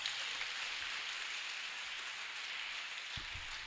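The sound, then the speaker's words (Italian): A steady, dense patter of many hands clapping as an audience applauds, holding an even level throughout with no voices over it. “Fatemi una, un applauso intanto che va...”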